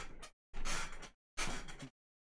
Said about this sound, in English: Got a squeaky chair or squeaky bum? my chair. My chair. The chair is older than old